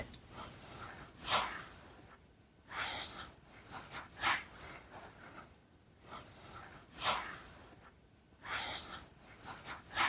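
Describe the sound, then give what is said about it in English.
Soft rustling and swishing of hair being parted and braided by hand, starting on the left side, steady repeated strokes with a couple of louder, brighter hissing brushes, no voices. “I'm gonna part it and I'm gonna start to braid it on the left side first.”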